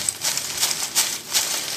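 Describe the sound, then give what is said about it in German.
Perforated film tape, not cassette tape, being crinkled and rustled for foley: a bright, hissy crackling that swells in several uneven bursts of moderate loudness, with no voices. “Das sind jetzt keine Kassettenbänder, aber. Ja, es sind gelochte. Ja, ja, das ist äh, kein Schmalband, sondern ist Filmband.”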